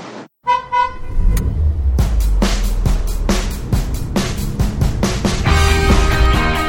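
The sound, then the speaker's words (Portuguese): A car horn toots briefly, then loud, steady rhythmic thumping with a heavy low rumble follows, continuous, like a vehicle passing along a street blaring its horn and sound. “Está passando na sua rua o carro das dicas de cultura e lazer?”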